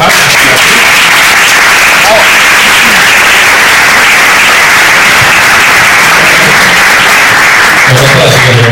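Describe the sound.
A loud, sustained burst of audience applause, dense clapping filling the whole stretch, with a faint voice surfacing near the end.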